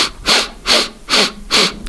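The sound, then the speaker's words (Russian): Four quick, sharp sniffs drawn in through the nose as a breathing exercise, evenly spaced in a steady rhythm, fairly loud with brief pauses between them and no talking. “5-7 коротких вдохов и один э, продолжительный выдох. Например, мы вдыхаем носом так.”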